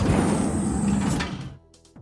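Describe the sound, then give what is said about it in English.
A huge, heavy door slides open after its doorknob is turned, with a low, grinding rumble for about a second and a half, then ends in a short creaking groan as it settles. Fairly loud, no voices. “The huge door opened.”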